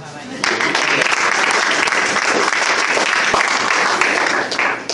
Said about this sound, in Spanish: otro aplauso para Leonardo